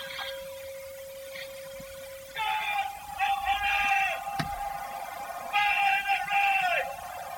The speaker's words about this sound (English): So that is that wasn't the bell that last bit that was no that was a shouting man um, shouting as you man.